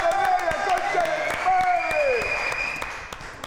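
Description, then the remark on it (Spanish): An audience applauds steadily, a dense, even patter of many hands clapping, with some tonal voices or music lines running underneath throughout. “¡Aplausos!”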